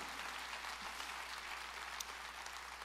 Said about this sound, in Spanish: Si lo crees, dale el mejor aplauso al Rey de Reyes y Señor de Señores.